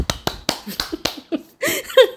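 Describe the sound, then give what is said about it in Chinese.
A short burst of hand clapping, about eight sharp, bright claps in a quick, steady rhythm, followed by a brief voiced sound at the end. “给自己拍拍手。”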